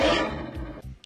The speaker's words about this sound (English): how … song starts off with that roar